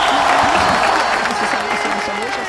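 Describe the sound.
Steady, dense applause fills the whole stretch at a fairly loud, even level, with a voice talking over the clapping throughout.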